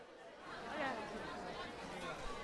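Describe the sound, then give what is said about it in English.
Lively crowd chatter of people at an airport gate waiting to board a plane to Tasmania, many overlapping voices talking excitedly at a steady, moderate level with no single voice standing out. “And to hear the joy, I hope you can hear the joy of people at the gate ready to get on this plane.”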